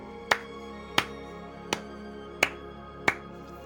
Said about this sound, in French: Et à ce moment-là, ils entendent des, des bruits de pas et avec quelqu'un qui applaudit.